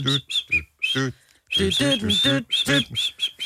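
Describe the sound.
A person whistles a string of short, high, chirpy notes that sound almost birdlike, repeating in quick bursts with brief pauses, mixed with voiced humming or vocal sounds throughout.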